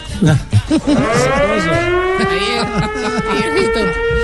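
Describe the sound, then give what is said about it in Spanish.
A fire truck siren, turned up during a live radio broadcast from the truck as it sets off along Avenida Florida Blanca toward the stadium, winds up into a loud, rising wail that holds steady, with people talking over it. “Pero súbame la, la sirena que estamos alegrando.”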